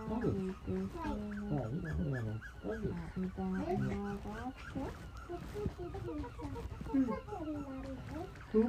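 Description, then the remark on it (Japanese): A newborn golden retriever puppy, seven days old with eyes not yet open, whimpers in a steady stream of thin, high squeaks and wavering whines, one cry after another with barely a pause. “ワンちゃん生まれたよゴールデンブッーっちゃんが生まれたよってこれが生まれこれが7日目7日まだ目が開いてない”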